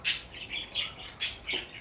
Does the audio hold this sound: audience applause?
no